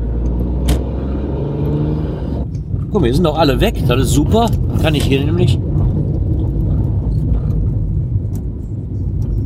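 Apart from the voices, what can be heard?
car interior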